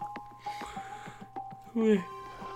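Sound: yawn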